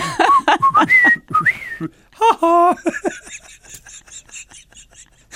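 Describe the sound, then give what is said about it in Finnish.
Someone whistles a short tune of sliding, wavering notes, then breaks into a run of quick, clipped high whistles that trail off, with some voiced sounds mixed in partway through. “mut mut samalla viheltään.”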